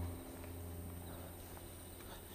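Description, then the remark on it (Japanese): Faint, steady high-pitched trilling of crickets and other insects fills a quiet late-August night, a continuous insect chorus with no voices and only a soft low hum beneath. “セミの声セミかなまあコオロギとかねそういう虫の声がすごい聞こえると思うんですけど”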